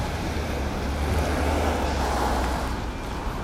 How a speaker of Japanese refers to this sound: 今日はねあのこの車の音で分かるかと思うんですけど、まあ、ちょっと雨がちなんですよね今雨雨は雨なんですけど傘をささなくてもいいくらいの雨